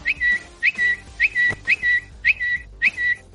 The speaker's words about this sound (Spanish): Ahora de momento queremos observar si ha cambiado el canto del pajarito.